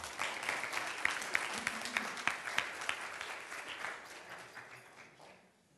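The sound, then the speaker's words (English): A crowd breaks into applause, a dense wash of many hands clapping at a steady level before thinning out and fading away over several seconds. “Give him a clap.”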